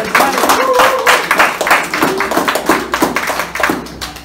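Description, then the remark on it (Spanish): An audience breaks into loud, dense applause, many hands clapping at once in a sustained burst, with a few voices calling out underneath. “un aplauso fuerte”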